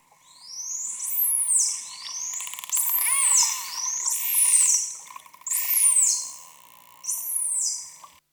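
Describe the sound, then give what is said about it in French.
About five high, sweeping whistles arrive one after another, each gliding downward, with rapid bursts of clicks scattered between them over a steady low hum. Made by a mother and her calf, both vocalizing, with the calf in its first weeks. No voices. “Donc là, on entend des, espèces de claquements, des sifflements. Qui fait quoi C'est la mère, c'est le petit qui parle C'est les deux.”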